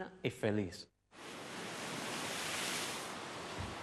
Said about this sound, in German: die Küste bei Santiago de Cuba im Südosten der Insel. Wild, weitgehend unberührt und oft unter rauer Brandung.